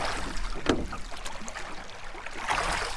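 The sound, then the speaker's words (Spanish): Oars splash and swish through water as a small rowing boat crosses a river, with a steady wash of river water and occasional knocks of wood, moderately loud with no talking. “Dale, subí a la barca que tenemos que cruzar el río.”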